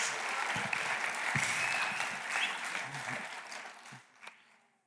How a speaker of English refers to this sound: Give him a round of applause. This guy's great, right?